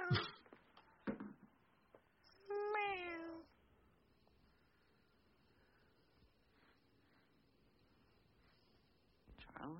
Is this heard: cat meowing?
yes